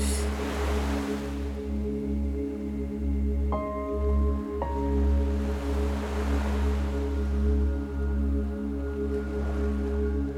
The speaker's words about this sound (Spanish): Sientes la brisa del mar, el viento, Escuchas las olas.